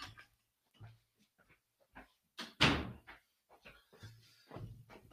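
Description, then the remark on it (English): A door that was not entirely closed is pushed shut early in the morning with one solid thud, surrounded by quieter scrapes, creaks and small knocks as it is handled. No one speaks. “The door's not entirely closed here.”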